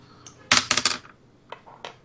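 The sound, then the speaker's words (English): Dice clatter across a hard tabletop during a d6 (six-sided die) roll in a quick burst of rattling clicks, then settle with a few faint ticks. Fairly loud, with no talking. “Roll a d6. Come on. Dice.”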